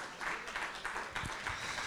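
An audience applauds in a dense, steady wash of many hands clapping together, holding at an even, moderate loudness for about two seconds with small surges along the way.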